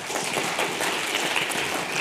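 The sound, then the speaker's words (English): An audience claps steadily for two seconds to show they trust Amazon the most, a dense, even patter of many hands with no voices over it, holding at a constant moderate loudness throughout. “But anyway, okay, if you think Amazon, you trust Amazon the most, clap now.”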